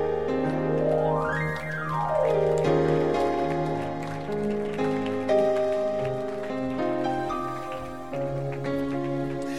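crowd, audience clapping

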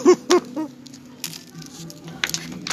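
food or drink, chewing food

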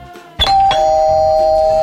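household object, doorbell ringing

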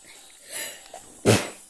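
human body sound, sneeze

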